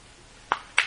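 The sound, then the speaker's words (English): A quick sneeze in two parts, a short voiced intake followed by a sharper, hissy burst, against a quiet background with no talking. “Bless you.”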